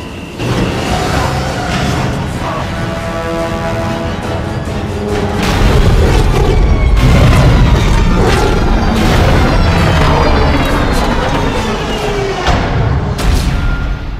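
The spaceship Kélion misses its approach and crashes onto the docking bay of the Ishimura during a rescue mission: a roaring, rumbling impact swells and holds, layered with booms, thuds, metallic shrieks and grinding. It is loud and dense, with no voices.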